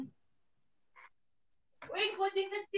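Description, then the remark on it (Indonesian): A small cat lets out one drawn-out, fairly loud meow near the end, after mostly quiet moments broken only by a brief faint sound. “Ini agak lucu ya nanti di postingnya ada suara. Seru eh, kucing.”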